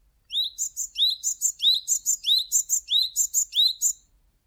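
A Japanese tit sings its simple song alone, a clear series of about a dozen rapid two-note phrases repeated steadily for several seconds, bright and high-pitched.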